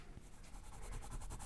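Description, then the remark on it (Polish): Soft, rapid tapping on keyboard keys in a steady rhythm, growing slightly louder halfway through, with no voices. “O, a w tle słyszysz psa, który pije wodę i delikatne stukanie w klawisze.”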